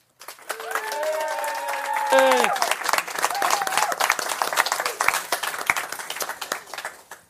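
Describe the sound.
Warm, sustained applause from an audience, many hands clapping steadily for several seconds, with some cheering voices rising over it near the start before the clapping continues on its own.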